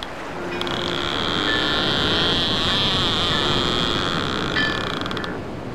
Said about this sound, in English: The sound of boats again. on the sea.